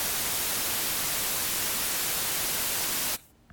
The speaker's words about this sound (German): Schöner Rauscheffekt.